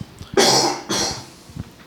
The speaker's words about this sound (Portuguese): Nossa, eu passei o dia bem, do nada me dá uma tosse, menino.